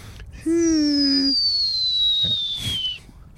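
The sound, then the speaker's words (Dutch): A starling mimics a dive-bomber, its favourite imitation: a thin, high whistle slides slowly downward for about two and a half seconds, opening with a brief lower buzzy tone, loud with no talking. “Dat is echt, kijk, die spreeuw doet honderdduizend geluiden na. Maar zijn, gewoon, zijn gimmick is echt die, eh, die, die duikbommenwerper.”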